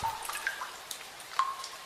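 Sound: water dripping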